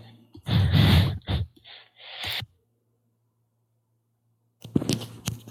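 A loud coughing fit: several harsh, breathy bursts in quick succession, a few seconds of silence, then another cluster of rough coughs and gasps.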